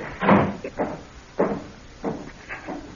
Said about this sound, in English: Let me shut this door.